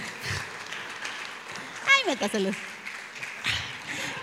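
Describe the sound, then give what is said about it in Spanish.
An audience applauds the 'generation of the juniors' with dense, steady clapping that lasts the whole stretch, briefly punctuated by a falling whoop or whistle and scattered cheering voices partway through. “Ok, vamos a dar un aplauso a la generación de los juniors.”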